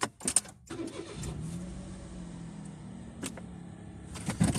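A car engine cranks with a few sharp clicks and a brief whir, catches, and settles into a steady low idle, with no talking.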